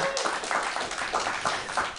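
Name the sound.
audience clapping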